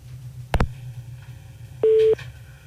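After a telephone number is dialed, a sharp click on a quiet phone line with a low hum, followed about a second later by a short, steady electronic telephone tone that beeps once and stops.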